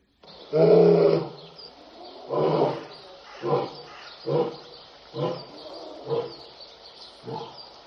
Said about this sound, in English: Look, it's a lion. Because of our guides, it's not interested in us.